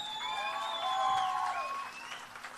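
An audience applauds steadily for a band that has just played its last piece, the final group in that evening's competition, the clapping forming a dense, even patter, with a few sustained high whistling tones gliding over it before fading slightly at the end.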